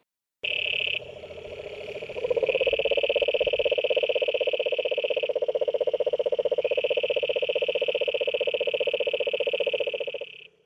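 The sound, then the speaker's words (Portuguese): A cururu toad gives a long, loud, unbroken trill, a rapid buzzing purr that holds steady for about ten seconds, with no voices over it. “O sapo cururu e o sapo boi são a mesma coisa.”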